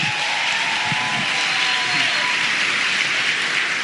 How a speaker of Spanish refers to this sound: un, un fuerte aplauso nuevamente para él.